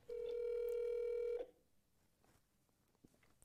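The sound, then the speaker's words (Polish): A single steady telephone tone of an outgoing call sounds loud and clear for just over a second, then cuts off, leaving faint near-silence for the rest. “Dobra, dzwonimy do pierwszej osoby”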